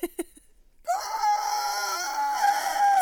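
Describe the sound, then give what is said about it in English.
An Aztec death whistle lets out a loud, rasping shriek that sounds like a human scream. It holds steady for about two seconds, after a few faint clicks. “Fucking death whistle.”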